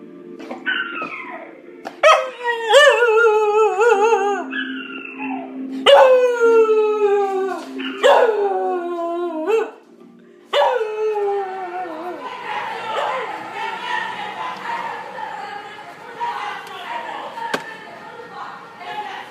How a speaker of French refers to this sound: c'est un enregistrement de mon chien qui pleure en écoutant une chanson. Et lorsque je lui fais écouter cette chanson où il pleure, il se remet à pleurer. Je vais vous montrer.